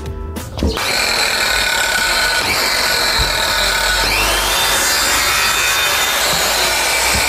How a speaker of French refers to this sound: Là, normalement, tu devrais trouver. une disqueuse, non Ouais, c'est ça. Bah, une scie circulaire en vrai. Donc, Ouais, euh, ça, je pense, c'est la même chose, non Comme C'est- une disqueuse, une circulaire, ouais, je pense.